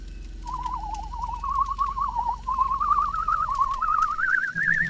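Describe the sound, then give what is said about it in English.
An eerie, wavering whistle holds a single warbling tone that slowly climbs in pitch, trilling steadily over a low rumbling background for several seconds. “The whistling was coming from the left.”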